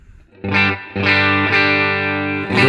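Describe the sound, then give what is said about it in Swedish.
Loud, distorted electric guitar chords drenched in reverb from a Dreamen effects unit, four struck notes ringing out and washing into one another, with no one talking. “Nu mer reverb då från Dreamen, så ska jag stänga av det sen.”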